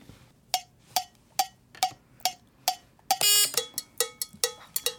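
A cowbell is struck in a steady, evenly spaced beat of bright metallic clanks, broken by a short buzzing rattle before the hits resume slightly faster and less even. No one speaks.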